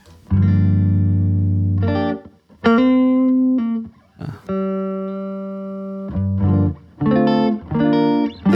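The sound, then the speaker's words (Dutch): A dry electric guitar with a gold foil pickup plays a series of loud, ringing chords and single notes, each allowed to sustain before the next strum, with no added effects. A voice briefly speaks. “Ik zal hem even helemaal droog laten horen.”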